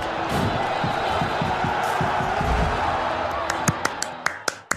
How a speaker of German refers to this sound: Gibt's Applaus von den Rängen?